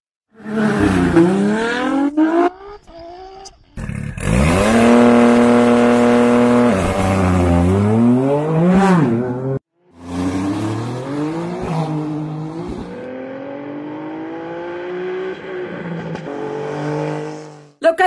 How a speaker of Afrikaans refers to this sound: daai was natuurlik die bioniese klanke van verskillende voertuie wat teen die berg op is.